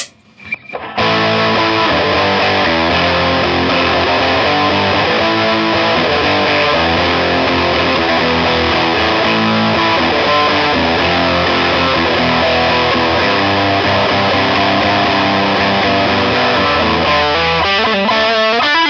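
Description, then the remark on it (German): A heavily distorted electric guitar plays a sustained lead line through the lead channel of a Boss Nextone amp. It is loud and steady with dense harmonic buzz, and no voices. “jetzt auch nochmal den Lead-Kanal”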